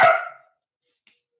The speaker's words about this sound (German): Das war dein Hund. Das war mein Hund gerade im Hintergrund. Manchmal erschrickt sie sich, wenn sie deinen Ton hört.